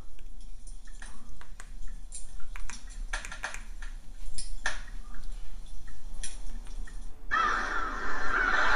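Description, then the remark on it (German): Crows caw repeatedly in short, harsh bursts, and near the end a louder, sustained chorus of gull cries rises over a steady breezy background, a seaside-landscape relaxation sound programmed into and played by a device. “Krähen, Möwen, also so Seelandschaft.”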